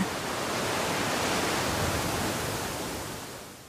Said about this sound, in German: Wir hören das Meerrauschen von weit weg und Salsa-Musik.